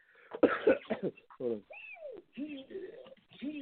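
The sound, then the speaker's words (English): A few harsh coughs in quick succession, followed by a person's voiced, speech-like sounds that continue to the end. “At least four separate times during this uh, during this episode, I've muted myself to cough.”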